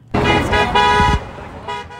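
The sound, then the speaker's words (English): A car horn blares in a long, loud honk, then a second sustained blast, followed by a brief fainter toot, with road noise underneath, heard while driving home. “Driving home, we were discouraged, but we heard a horn honk.”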